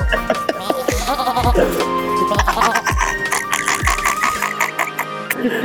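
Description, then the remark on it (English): A wavering, bleating voice imitates a goat over steady, thumping music with a regular beat, loud throughout. “Sounds almost like a goat.”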